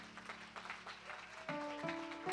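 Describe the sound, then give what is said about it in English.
A crowd claps steadily together in praise of the Lord, a dense wash of hand claps over sustained organ-like chords that shift partway through, moderately loud with no one speaking. “Let us give the Lord a hand clap of praise.”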